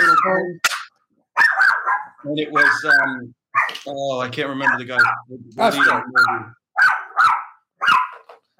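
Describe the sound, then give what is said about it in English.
A small dog barks repeatedly in short, sharp bursts at somebody walking in front, overlapping with a person talking casually throughout. “That's a dog Think barking.”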